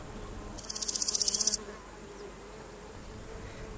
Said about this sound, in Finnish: Kesäisellä niityllä soittelevat heinäsirkat ja muut pörjäiset, ja ihminen voi heittäytyä vain niitylle pitkälleen niitä kuuntelemaan.